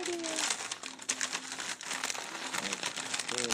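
The plastic wrapper of a beef and bean chimichanga crinkling and rustling steadily for several seconds as it is pulled off in a kitchen in Los Angeles, California, with bursts of sharp crackles over a faint hum and brief voiced tones in the background.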